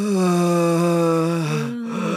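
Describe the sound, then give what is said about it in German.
A voice imitates the exaggerated heavy breathing of men in a yoga class: one long, loud, drawn-out voiced exhale, like a deep moaning breath, that dips briefly and trails off near the end. “Ich wollte dir eh schon super lange erzählen, dass ich immer in so einer Yoga-Klasse bin, wo auch immer Männer sind, die immer ganz dolle das, das mit dem Atmen so machen wollen. Die immer so.”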